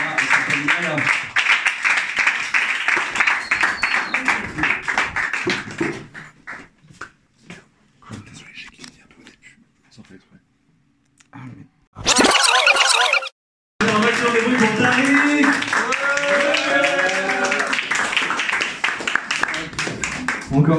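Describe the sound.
A crowd breaks into loud, dense applause that fades out, then after a brief quiet stretch the clapping and lively crowd noise swell up again, with voices mixed in.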